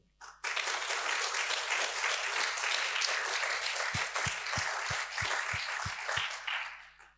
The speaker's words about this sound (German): Einen großen Applaus